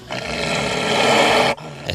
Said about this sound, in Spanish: Oye, ¿podemos escuchar el rugido otra vez?